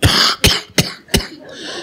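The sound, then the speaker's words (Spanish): A voice imitates a wet, phlegmy cough to fake illness: a rough opening hack, then three sharp bursts in quick succession and a trailing raspy exhale, fairly loud. “Sabía tos seca, ah, ah, ah, tos húmeda”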